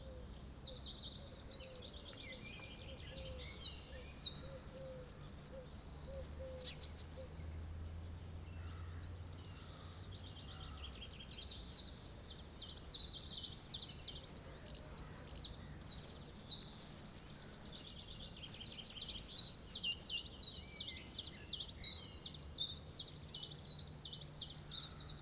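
A wren, about 10 cm long and 9 grams in weight, sings in a garden. It sings long, varied phrases of rapid high chirps and trills in two main bursts, clear, over a low outdoor hum with no talking.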